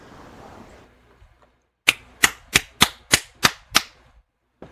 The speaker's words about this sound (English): There you go. There's my clapping, as if I were there.